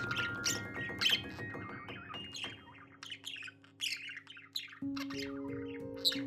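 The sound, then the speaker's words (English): Two lovebirds in a huge cage chirp and tweet busily, with rapid high-pitched calls overlapping throughout, over a steady low hum that shifts pitch partway through. “So later on, she knocked on my door and and I opened the door and there was this huge cage with two lovebirds in it.”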